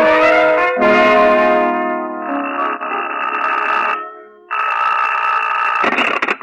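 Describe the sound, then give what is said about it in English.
A telephone rings loudly in several sustained bursts with a brief pause between them, its bright, buzzing tone rich in overtones, ending with a short rattling clatter. No one speaks. “Somebody's been calling me, getting me up, and then just laughing until I'm nearly frantic.”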